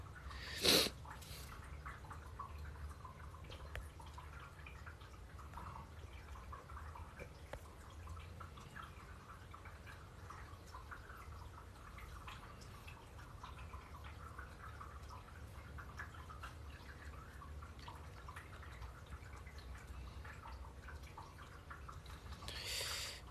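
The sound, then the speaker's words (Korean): A steady, soft trickle of running water from a pet water fountain, the machine the pet Cookie drinks from, continues throughout at low volume, with faint dripping textures and a brief sharper splash at the beginning and end. No one speaks. “근데 물소리 우리 쿠키 물 먹는 그거 기계”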